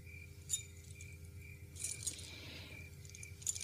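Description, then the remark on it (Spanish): Keys being left for someone clink and jingle in a few light metallic bursts, a brief jangle in the middle, against a quiet room hum with a faint steady tone. “Te dejo las llaves.”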